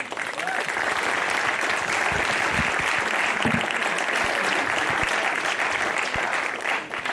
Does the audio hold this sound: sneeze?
no